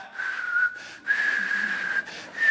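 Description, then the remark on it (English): A person whistles a steady, thin tone in three sustained breaths separated by short pauses, fairly clear, with a breathy airy edge and a slight wavering pitch. “and then you learn to whistle.”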